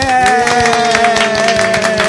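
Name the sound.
self-applause clapping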